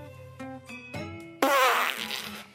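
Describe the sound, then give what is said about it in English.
A voice makes a buzzing, lip-trilled fart imitation in a few short sputtering bursts, ending in one louder, raspy blast that trails off over about two seconds. “he guffs every five seconds.”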